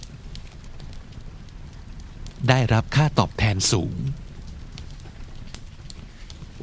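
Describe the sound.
Steady crackling and popping of a fireplace fire runs through the whole recording, with sharp clicks scattered over a soft hiss, while a voice briefly reads English compound words with Thai meanings in an ASMR sleep recording.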